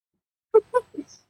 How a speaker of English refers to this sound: That's Maze. Oh, nice. What kind of dog is that? Um, uh, I don't really know. hmm? Oh, I was just thinking We don't know. Oh, Maybe a kelpie.